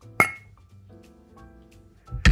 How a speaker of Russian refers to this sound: Давай Я выпью чай. Дзинь. Э, а, подожди, я хочу, подожди, стой, стой, давай, давай, давай чокнемся, давай чокнемся. Давай, раз, два, три.